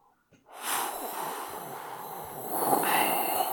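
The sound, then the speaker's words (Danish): A person blows a long, breathy whooshing hiss to imitate wind rushing across desolate steppes. It starts suddenly, holds steady, then swells slightly louder toward the end, alone. “Og, og her vil det være godt, hvis du sådan, du, kan, du, kan du lyde lidt som sådan vinden, der suser hen over de øde stepper.”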